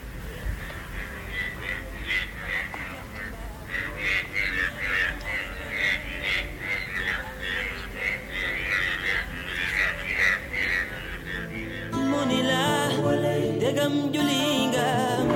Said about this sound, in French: 24 juin 2003, petit, les crapauds viennent de prendre un coup de sang. À mon avis, c'est parti pour la nuit.